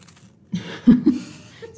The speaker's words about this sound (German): snackt hier gerade nochmal einen kleinen, kleinen salzigen Snack